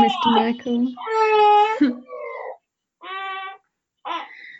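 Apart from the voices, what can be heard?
baby crying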